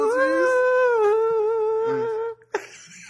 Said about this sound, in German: Danke, das ist Gizmo. Das ist, das, ist so, genau. das, ist, das ist so ein ganz, das ist so ein schrilles Schnurren von einer Katze.